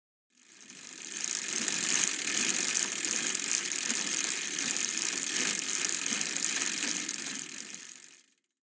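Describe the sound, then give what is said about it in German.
A dense, steady whir of many bicycles riding together, freewheels ticking in a continuous rattling hum that swells in, holds for several seconds and fades away, with no voices. “Also dieses Surren oder Sirren ist das Geräusch von vielen Fahrrädern.”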